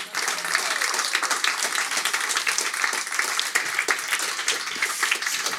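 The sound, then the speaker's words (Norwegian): A large audience at a free event at a publishing house applauds steadily to welcome an author, a dense wash of many hands clapping at once that holds at a strong, even level for several seconds before starting to taper off at the end. “Det pleier jeg å si hver gang når applausen dør ut uansett.”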